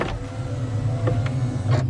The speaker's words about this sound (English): I'm going to open the sunroof just enough to squeeze my head and arms out. Just hold on tight and let me move slowly.